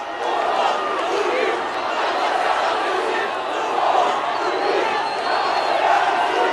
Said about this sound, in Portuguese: Sem maior repressão da polícia, os manifestantes conseguiram invadir o teto do Congresso. De lá, cantavam o hino nacional e gritavam palavras de ordem.